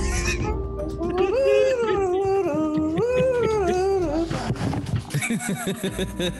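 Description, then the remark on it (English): A dog howls in long, wavering, up-and-down tones for several seconds, fairly loud, then breaks into a few short, rough bursts like barks near the end. “that dog.”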